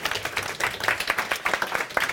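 An audience applauds as a woman is welcomed onto the stage, with dense, steady clapping that holds at a moderate level for a couple of seconds, many overlapping hand claps forming a continuous crackle.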